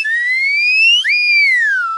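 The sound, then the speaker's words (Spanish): A magic wand sound effect, used to make a character appear: a loud, pure whistling tone that glides slowly upward, jumps up sharply halfway through, then sweeps down in a long falling slide, with no talking. “Entonces hago la varita mágica para que aparezca.”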